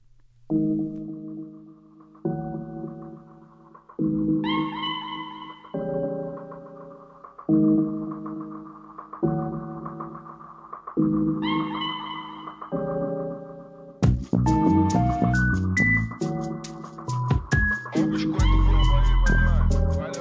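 A music track opens with a melodic line of held, bright notes in short repeating phrases, then a fuller arrangement with steady percussion and bass kicks in and plays on loudly.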